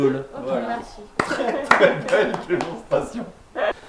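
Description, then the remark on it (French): A few sharp, dull knocks of paper sheets tapped against a tabletop, picked up by the microphone, breaking through over ongoing conversation between people. “Il va falloir arrêter de faire taper tes feuilles contre la table, ça s'entend au micro.”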